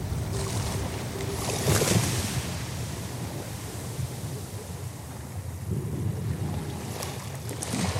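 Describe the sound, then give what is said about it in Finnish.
Arabian Sea waves wash steadily against the shore in a broad, continuous roar, with a couple of louder surges and some wind buffeting the microphone; no one speaks. “Muistan sen nyt, tässä Arabian meren äärellä.”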